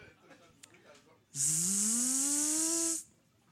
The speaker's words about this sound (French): Des mouches. On est dans un camping.